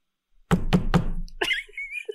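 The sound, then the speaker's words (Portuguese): Three solid knocks on a locked bathroom door in quick, even succession, fairly loud, at 1:58 in the morning, followed by a softer thump and a brief high-pitched squeaky sound. “Até que, quando estava prestes a terminar, escutei três batidas na porta do meu banheiro.”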